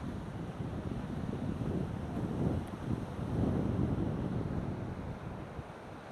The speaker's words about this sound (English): Well, you can hear the waves crashing. They're not big, but they're going to be fun and it's going to be quite cold.